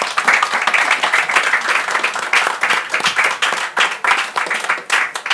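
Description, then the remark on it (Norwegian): An audience applauds steadily for several seconds to thank guests for coming, a dense, fairly loud wash of many hands clapping together without any voices. “Stor applaus.”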